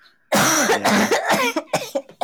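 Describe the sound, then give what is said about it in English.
A loud burst of harsh coughing, several rough hacks running together, then a few shorter coughs trailing off with brief gaps between them. “I'm trying so hard not to cough.”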